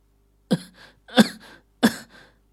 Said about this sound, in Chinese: 身旁的莫永新传来几声咳嗽，显然是被河水给呛到了。